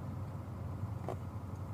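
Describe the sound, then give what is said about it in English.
A car rumbles past with a steady, low engine drone, fairly faint and muffled, with one short brighter swish about midway. No one speaks. “Oh, that's, that's the car again.”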